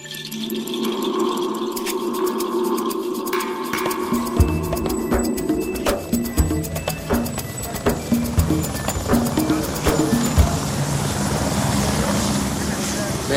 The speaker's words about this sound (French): C'est un hélico. C'est hélicoptère.